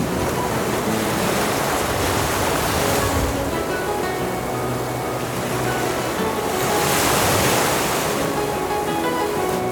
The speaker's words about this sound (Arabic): فركبنا معه قاصدين بلاد المعبر حينما جن علينا الليل دارت ريح عاصفة وأصبحنا في موج كالجبال